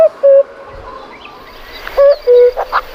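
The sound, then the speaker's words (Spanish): A common cuckoo calls its two-note falling "cu-coo" twice, a couple of seconds apart, clear over a faint outdoor background with a few soft chirps. “suena el cuco, luego es primavera.”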